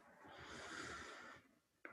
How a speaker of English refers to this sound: Breathing in, there is a love. Breathing out, holding all. Breathing in,